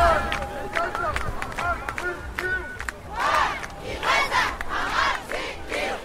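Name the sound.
demonstration crowd chanting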